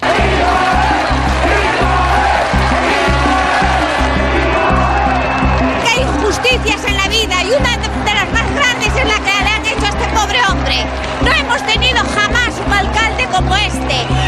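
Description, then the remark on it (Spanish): A loud, dense crowd of women and men shouting and chanting together in support of an accused harasser, voices overlapping in a continuous roar with rhythmic bursts, sustained for the whole stretch. “Y nos pasan en el documental los gritos de estas mujeres y de estos hombres y de esta gente. A favor del acosador.”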